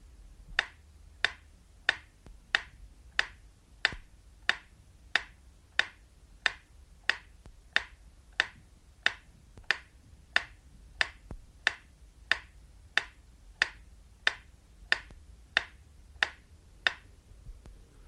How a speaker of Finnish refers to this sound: Ja nyt vielä varmistuksen vuoksi metronomin tikitystä, jonka pitäisi kuulua vain oikeanpuoleisesta kaiuttimesta.